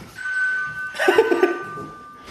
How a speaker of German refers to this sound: Ja, aber geile Klingel. Ich ja. hätte auch gerne so eine.